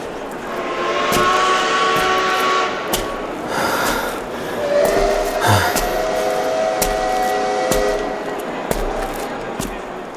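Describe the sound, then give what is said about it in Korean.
Busy city street traffic in Gyeongseong roars steadily throughout, with engines humming and one vehicle sweeping past midway, plus scattered sharp knocks and clatters in the background. “여러 번 자동차에 치일 뻔하면서 나는 그대로 경성역을 찾아갔다.”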